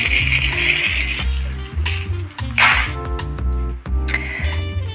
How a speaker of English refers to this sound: Can you hear that? These are my keys. I have the keys with that ASMR activation key sound energy.